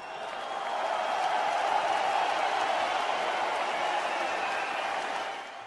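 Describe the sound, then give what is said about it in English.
A crowd cheers and applauds for fighter Paul Felder after his match against Dan Hooker, in a steady, dense roar of clapping and voices that holds loud and even for several seconds before easing off slightly at the end. “You hear that crowd reaction to that? They love you, man.”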